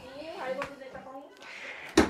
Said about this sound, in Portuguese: Peraí, deixa eu encostar essa porta aqui.